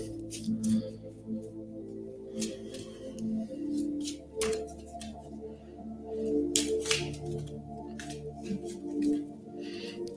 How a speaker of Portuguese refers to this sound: Vamos então começar a nossa meditação e para isso vou aqui, ainda estava a pensar como é que iria fazer, aqui tirar o nosso baralho, o nosso oráculo, para fazer aqui a meditação com uma cartinha tirada.